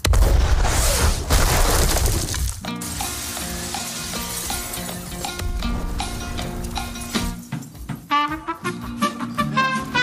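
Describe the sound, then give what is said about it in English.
Punching, crunching and blasting effects for a fight scene of CGI robot battling CGI robot: a loud, roaring blast of noise fades into standard MCU fight music, dramatic and orchestral, punctuated by sharp impacts and crunching hits toward the end. No one speaks. “So, instead of hearing crunching, punching, and blasting, how about we do punching, crunching, and blasting with our standard MCU fight music.”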